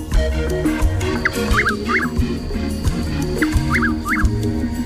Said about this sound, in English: whose call has inspired colorful nicknames like Hollerin' Boys, Twixt Hell and the White Oak, and the Dutch Whippoorwill. It's known scientifically as Caprimulgus carolinensis. It's today's Talking Birds featured feathered friend, Chuck Will's widow.